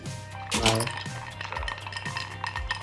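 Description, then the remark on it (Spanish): Ice cubes clink against the side of a glass holding a drink in a series of bright, ringing taps, a few seconds of uneven jingling with a louder burst near the start. “Ahí está, mis hielitos y la bebida.”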